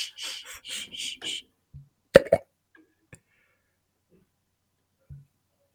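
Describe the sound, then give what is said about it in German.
Opening a screw-top nacho cheese dip jar: several short, rough twisting scrapes, then a sharp pop as the seal breaks, followed by a couple of faint clicks. “Das ist ein Käsedip, ein Nacho-Käsedip so, äh, mit Schraubverschluss.”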